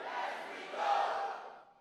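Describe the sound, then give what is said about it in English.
A crowd erupts in loud, sustained screaming and cheering, a broad wash of many voices that swells midway and then begins to fade over about two seconds. “Somebody scream, as we go.”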